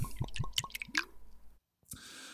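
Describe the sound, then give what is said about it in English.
A drink, a couple fingers' worth, is poured into a glass in a quick run of wet glugs and drips, followed by a brief silence and a short final splash, with no talking. “pours a little uh, couple fingers worth, and uh,”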